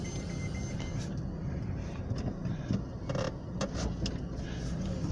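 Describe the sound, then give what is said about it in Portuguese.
A car engine rumbles steadily as a parked car with its driver inside pulls out of a parking space, with a few brief mechanical clicks and knocks partway through. “Aí eu parei aqui e eu não vi que o cara tá dentro do carro. E aí ele tá saindo.”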